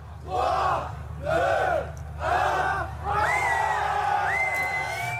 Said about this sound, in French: Nous sommes le 27 novembre 2007, plus de 2000 personnes se sont massées devant le magasin Apple sur les Champs-Élysées à Paris.